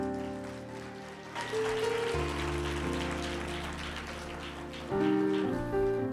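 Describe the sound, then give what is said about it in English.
A church audience claps steadily to thank the Lord after a sermon, a dense crackling wash of many hands, over sustained keyboard or organ chords that shift and swell partway through. No one speaks. “Hey, would you clap your hands and thank the Lord for that word?”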